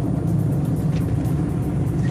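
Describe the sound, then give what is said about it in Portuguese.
Steady traffic on the BR-230 highway near the Beira Rio access, heading toward Cabedelo, where two collided cars stand in the left lane: a continuous low rumble of passing cars with faint tire hiss, fairly loud and even throughout with no voices. “houve uma colisão no sentido Bahia Cabedelo, é, um pouquinho antes do acesso aqui à, à Beira Rio, na BR, né, 230. É, na faixa da esquerda, tem dois carros parados, o trânsito já, já começa a complicar.”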